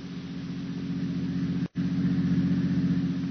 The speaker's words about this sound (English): Only the heat on the glimmering marshes and the decaying, weather-boarded house as a motor car approaches